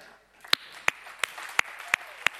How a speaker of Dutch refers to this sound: Weet je, en ik heb het gewoon heel sterk op mijn hart om koning Jezus gewoon een applaus te geven vanmorgen. Om, om hem, om zijn naam groot te maken. Zullen we dat gewoon even, zullen we dat doen? Gewoon even.